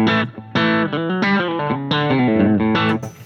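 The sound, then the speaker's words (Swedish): An electric guitar through an overdrive pedal that seems a spin-off of a Tube Screamer plays a short melodic phrase of sustained, singing notes with a few brief breaks. The tone is loud, thick and gritty, with no voices. “jag får i alla fall en känsla av att den är en spin-off på en Tube Screamer som jag hörde här.”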